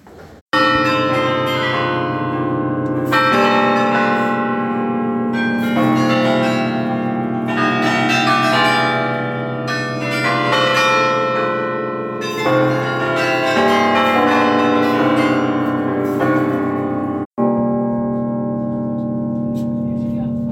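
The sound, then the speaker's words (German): Carillon bells of the belfry tower in Bruges, Belgium, heard from the top of the tower, ring out in a loud, continuous peal, many overlapping tones struck in repeating melodic waves that swell and fade, with a brief break near the end before the ringing resumes. “Ja, wir haben uns tatsächlich recht lange oben auf dem Turm rumgetrieben.”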